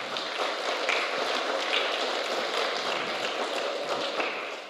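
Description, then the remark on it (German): Audience applause for a preacher who is about to preach in German for the first time. A steady wash of many hands clapping holds at an even, fairly loud level for about five seconds before easing slightly at the end, with no voices over it. “Und können wir ihm einfach einen Applaus geben?”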